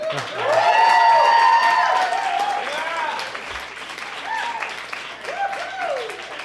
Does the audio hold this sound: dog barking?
no